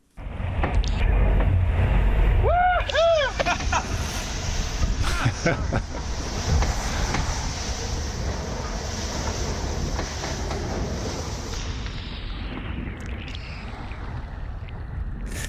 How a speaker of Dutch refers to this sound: Ja, ik hoor enthousiasme, maar ik hoor vooral veel water en veel wind. Is dat inderdaad wat je, wat je al die tijd om je hoofd hebt, dit geluid?